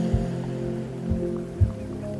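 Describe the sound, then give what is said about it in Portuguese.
Sea waves crash against rocks in a steady wash of water, broken by three dull, low thuds as swells strike. No voices are heard. “O último som que eu gostaria de ouvir é o som do mar, ouvindo as ondas batendo nas pedras.”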